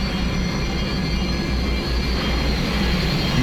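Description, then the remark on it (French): A steady, loud engine roar rumbles continuously with dense low-end energy and a broad hiss above, from an approaching aircraft trailing smoke, with no voices. “Mais qu'est-ce que c'est que ce truc Un avion Un vaisseau spatial Superman”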